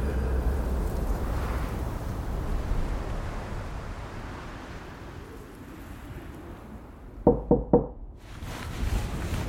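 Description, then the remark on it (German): Three quick, loud knocks on the door of a guest room at Timberline Lodge near the end, sharp, breaking through a steady roar of storm wind and surf that fills the whole recording. “Als es an der Tür klopft,”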